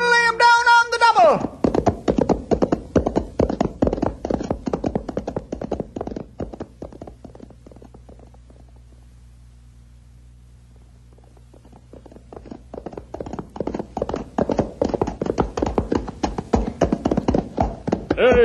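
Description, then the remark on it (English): Horse hooves clip-clop in a steady trotting rhythm, fading away until nearly silent, then growing louder again as they return; a brief voice sounds at the very start. “Come on, horse, let's pick 'em up”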